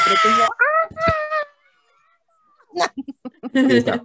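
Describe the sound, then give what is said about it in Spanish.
Several hosts shriek and whoop loudly, imitating a crowd of cheering fans, in two bursts of high-pitched yelling separated by a brief quiet pause. “Bueno, vamos a, echarnos un grito de esos de, fans tan”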